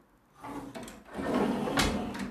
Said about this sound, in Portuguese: Peraí, minha gente, deixa eu fechar aqui essa janela.